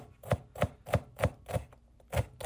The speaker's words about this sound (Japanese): 野菜を包丁でね切る音野菜を刻む音このキッチンでね録音して送ってくれました